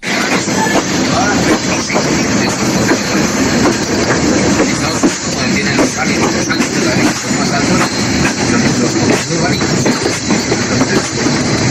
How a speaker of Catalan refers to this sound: Us deixo un àudio perquè escolteu un trosset del sorollet del tren amb les vies